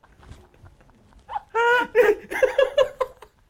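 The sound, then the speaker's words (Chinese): Loud, phlegmy throat clearing of a large lump of stuck phlegm: a sustained gravelly, voiced rasp followed by several choppy guttural bursts, after a second or so of faint low rumbling. “我就不要，刚刚那个是痰声。”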